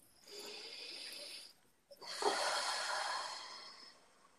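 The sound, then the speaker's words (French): A deep breath: a steady, airy inhale lasting over a second, a brief pause, then a longer, louder breathy exhale that slowly fades. No talking. “Alors, une respiration.”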